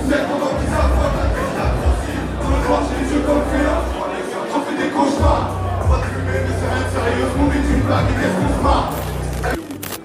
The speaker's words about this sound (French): le public est très, très, très, très, très, très chaud. On est au milieu de la foule.